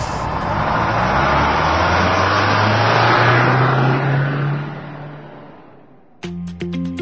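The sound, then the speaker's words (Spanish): A car engine roars loudly and revs with a steadily rising pitch, then dies away over a few seconds before a brief, bright tonal sound cuts in at the end. “Ha llegado el momento de encender motores.”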